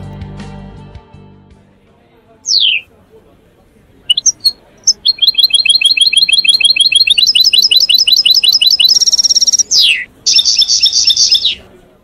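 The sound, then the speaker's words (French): A caged wild goldfinch sings loud and bright: a few sharp downward-sweeping calls, then long runs of rapid, tinkling twitters and trills, heard alone after a brief low rumble at the start. “Un oiseau sauvage, voltant dans une cage, un chardonneret pour être précis.”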